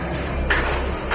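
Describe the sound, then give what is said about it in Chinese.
A door slides open with a low, steady rumble, marked by two brief scraping rattles partway through and at the end, over a constant background hum. “哎，中中中，开门。”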